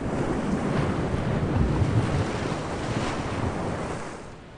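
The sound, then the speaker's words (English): Heavy ocean waves surge and crash against a large merchant ship's hull, a continuous, loud wash of water with gusting wind, easing off slightly toward the end. No voices. “A large merchant ship crashed through the waves.”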